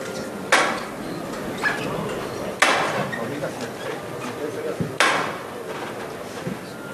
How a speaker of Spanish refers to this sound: este convento de San Gregorio que ahora sigue a la espera, sigue frente a, a la delantera del paso, ahora sí, suena el martillo.